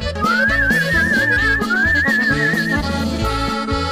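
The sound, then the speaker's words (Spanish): A person whistles a warbling, trilling melody up close for a few seconds, over a steady rhythmic musical backing that keeps playing after the whistling stops. “No puede estar chiflando todo el día en la oficina, ya he recibido muchas quejas, ¿me oyó?”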